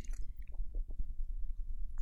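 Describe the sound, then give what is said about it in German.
Someone drinking: a few soft, wet sipping and swallowing sounds in quick succession over a low, steady rumble, with no talking. “Ja, Entschuldigung, ich habe gerade getrunken.”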